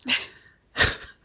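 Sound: sneeze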